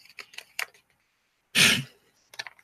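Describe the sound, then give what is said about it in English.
Orange paper crinkles and rustles as it's pulled from the pocket of old shorts: a few light, scattered rustles, then one loud crunching burst, followed by softer crinkling. “like when Adam pulls out orange pieces of paper from his shorts he hasn't worn like in five years”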